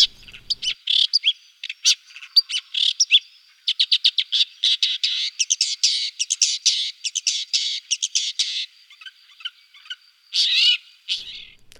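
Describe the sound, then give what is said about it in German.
A recording of a small songbird singing a long, lively song of rapid high chirps and trills, clear, with brief pauses between bursts and no voices. “So ein kleiner Singvogel, glaubt man gar nicht. Und dabei singt er auch eigentlich sehr schön, haben wir nicht gehört, aber so würde er klingen, wenn er denn hier bliebe am salzigen See.”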